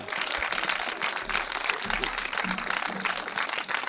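Sustained audience applause, a dense, steady wash of many hands clapping at an even loudness throughout, with faint low murmurs underneath, as two finalists are called back onto the stage to decide the winner of a competition.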